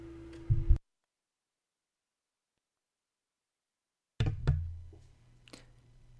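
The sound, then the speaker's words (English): The mute button on a Blue Yeti microphone is clicked, cutting the sound to dead silence for a few seconds; then sharp clicks and thumps return as it's pressed again, followed by a lighter click. “This mute button is a little hard to hard to hit on the on the Blue Yeti.”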